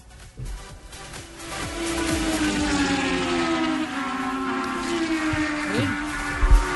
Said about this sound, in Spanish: Sí, se escucharon y son los rugidos del nuevo motor